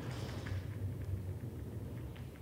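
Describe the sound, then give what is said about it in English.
A car passes outside, a heavy low rumble and engine drone that holds steady throughout with no voices over it, muffled as if heard through a wall or window. “All right, that I think is a car. That was loud.”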